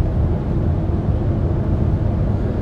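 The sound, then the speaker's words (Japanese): Loud, steady low rumble of engine and road noise inside a car straining up a hill on the way to a cyclocross race, constant throughout with no voices. “ちょうど坂道入っちゃったんでうるさくなっちゃった”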